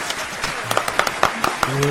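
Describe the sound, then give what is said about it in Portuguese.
Brief applause with a dense patter of hands and several sharper, louder claps standing out at irregular moments, a voice faintly heard underneath toward the end. “E palmas, palmas.”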